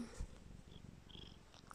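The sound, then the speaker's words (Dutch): A cat lying on a bed purring, a soft continuous low rumble with steady rhythmic pulses, heard alone and fairly quiet. “ik lig hier op bed met mijn zuster Kat. Misschien hoor je me spinnen.”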